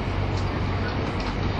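A 683 series Shirasagi No. 14 limited express train running between Toyama and Nagoya, Japan, nearing Tsuruga, heard as a steady, dense rumble with a low droning hum underneath and faint hissing on top, continuous and even in loudness throughout.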